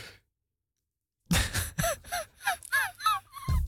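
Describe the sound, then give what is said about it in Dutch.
After a second of silence, a man yawns loudly, a drawn-out groaning breath broken into several wavering vocal swells that rise and fall in pitch. “ja, hij begint te gapen.”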